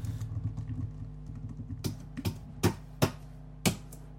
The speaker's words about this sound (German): Dann, dann tipp jetzt aber auch bitte richtig laut.